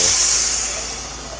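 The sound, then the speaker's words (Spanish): Garbage trucks go by in a neighborhood street, a loud, steady hiss of air and engine noise filling the street before slowly fading away. No one speaks. “Este es el barrio con, con el clarasol y con los camiones de la basura.”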